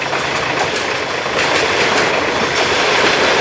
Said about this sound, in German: Da ist ein Bahnübergang. Wir müssen dranbleiben. Nein, es kommt ein Zug